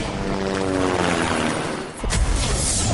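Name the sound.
helicopter flying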